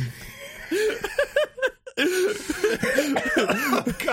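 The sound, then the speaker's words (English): A person who has choked on their own spit coughs and sputters in a series of rough, choppy bursts, briefly stopping for breath before more strained, voiced coughs that edge into laughter. “damn it, make me choke on my own spit.”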